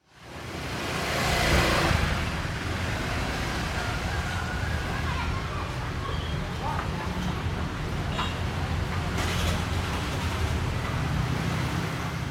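Busy street traffic with mopeds and cars in Canggu, Bali, makes a steady, loud roar and deep rumble throughout, with the brief whine of an engine passing now and then.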